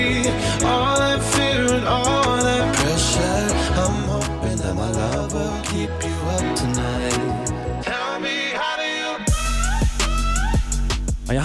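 A loud, full pop track plays continuously with steady beat, layered synths and vocals, briefly thinning out before surging back with bright, punchy energy near the end.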